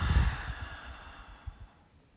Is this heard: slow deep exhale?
yes